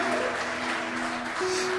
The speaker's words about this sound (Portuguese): Você pode aplaudir bem forte a Jesus, meu amado amado.